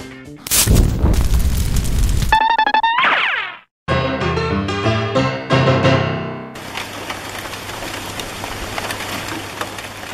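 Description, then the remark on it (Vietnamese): A loud, rumbling crack of thunder opens, then a few seconds of tonal, musical-sounding effects, before steady, hissing rain with wind takes over and continues to the end. No one speaks. “Ôi trời, mưa gió bão bùng như xót thương cho tình cảnh của tôi”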